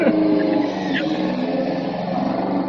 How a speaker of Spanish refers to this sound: Una, una moto, una moto. Ah, una moto, ya, perfecto.